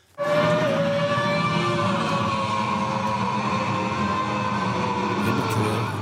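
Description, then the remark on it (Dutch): A loud car engine roars steadily on a racing circuit for about six seconds, its droning pitch holding nearly level and sagging slightly toward the end. No voices are heard. “Maar Nout stond ernaast en die nam er gewoon wat geluid op. Gaan we nu even naar luisteren.”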